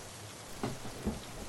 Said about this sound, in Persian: آخه یه دقیقه بشینم زیر این بارون آخش